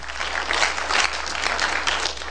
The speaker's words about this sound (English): Clap your hands one more time to the Lord.